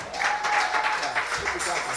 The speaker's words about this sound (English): Oh, are you clapping?